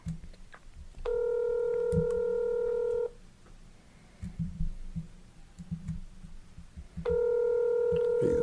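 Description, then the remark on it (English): A phone line rings out with two long, steady ringback tones separated by a several-second pause, with low muffled background rumble in between and no one answering. “Doesn't sound like he's going to answer.”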